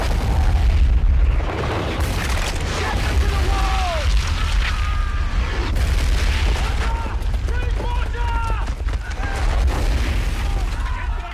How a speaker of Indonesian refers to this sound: Selanjutnya dengan menggunakan howitzer, mortir, dan meriam, pasukan Belanda menembaki benteng Bonjol